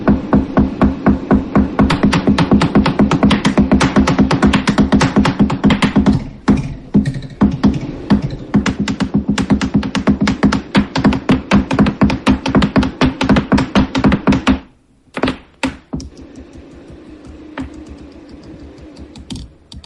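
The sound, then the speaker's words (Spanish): Percussion struck with three different drumsticks in Guanajuato: a loud, dense stream of rapid hits with a steady ringing low tone, thinning to a few scattered strikes near the end. No one speaks. “Está usando tres baquetas diferentes en este momento.”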